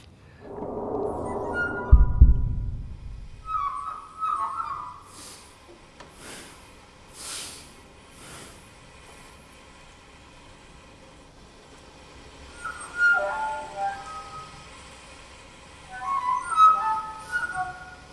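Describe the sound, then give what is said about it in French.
Sparse, quiet contemporary music from scene 5 of the opera Luci Mitraditrici evokes birdsong: brief chirping, twittering instrumental figures and breathy hissing taps, scattered over near-silence after a low thud at the start, with no voices. “Dans la musique de Chalino, on entend aussi des animaux, comme ici des oiseaux dans la scène 5 de Luci Mitraditrici.”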